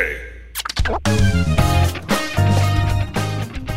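A short musical jingle, a sound logo made by a musician in Mexico, bursts in after a scratchy swell, with punchy bass hits and bright layered tones playing a quick melodic phrase for a few seconds, loud and clear with no voices.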